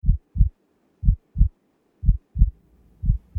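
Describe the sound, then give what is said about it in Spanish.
A deep, low heartbeat thumps in steady lub-dub pairs, about four double beats at a slow, even pace, muffled, with no voices. “¿Por qué sientes los latidos del corazón en el cuello?”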